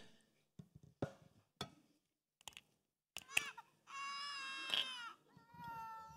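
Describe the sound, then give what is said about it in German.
A few short clicks and taps, then a newborn baby bursts into loud crying at the moment of birth: one long sustained wail followed by a second, slightly quieter cry. “Und hier irgendwann kommt es zu dem Moment der Geburt.”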